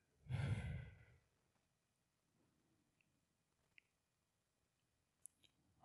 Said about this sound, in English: simple breaths today. In the nose. of the mouth, in the nose. And as you exhale, just let your shoulder drop a little bit.